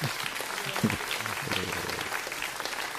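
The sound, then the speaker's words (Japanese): A steady round of hand-clapping applause at the start of a live radio broadcast fills the whole stretch, dense and continuous like a small group, with a faint voice briefly audible beneath it. “あ、拍手があった。パチパチパチパチパチ。”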